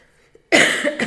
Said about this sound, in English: Would you like to do the cough?